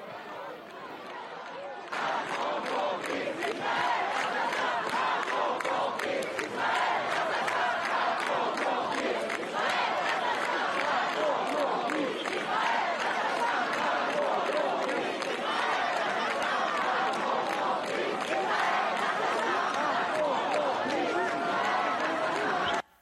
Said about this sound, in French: Les slogans qu'on vient d'entendre par ailleurs, c'est ceux d'une manif pro-palestinienne ou c'est ceux d'une manif pro-Hamas